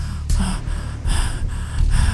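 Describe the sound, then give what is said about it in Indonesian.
A voice imitates heavy panting, with loud, rapid, breathy gasps in an uneven rhythm, like someone out of breath after running 10 kilometres. “kemudian saya ngos-ngosan kayak habis lari 10 kilo kayaknya ya pokoknya habis kayak lari ngeliling stadion itu ngap-ngapannya tuh seperti itu”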